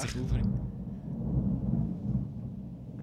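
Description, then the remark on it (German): Thunder just after a lightning flash breaks with a brief sharp crack, then a deep rolling rumble that carries on steadily for the next few seconds, fairly loud. “Jetzt hat es gerade Huren geblitzt.”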